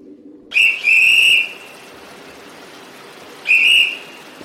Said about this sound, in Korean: 사육사가 호루라기를 붑니다. 난그 소리를 들었지만 움직이지 않습니다.